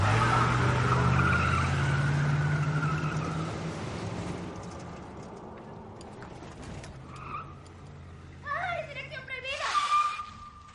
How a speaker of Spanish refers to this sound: Dan marcha atrás con un camión de frente.